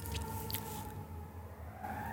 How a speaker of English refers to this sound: There's a siren going again. I'm just gonna talk over it.